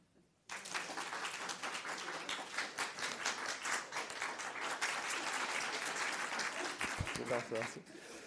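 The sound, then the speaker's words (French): An audience of about 100 people breaks into steady, loud applause in the morning after a brief moment of quiet, the dense clapping continuing evenly to the end, with a faint voice briefly audible near the close. “C'est agréable de se faire applaudir par 100 personnes de bon matin.”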